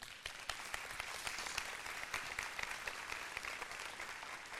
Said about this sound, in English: Y'all give them a hand clap this morning.